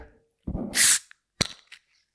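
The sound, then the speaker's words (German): A bottle is opened: a rustling scrape and a loud burst of hissing gas, then a single sharp pop followed by a couple of faint clinks. No one speaks. “Aber auf jeden Fall, ich mache jetzt einmal die Flasche auf und wünsche dir”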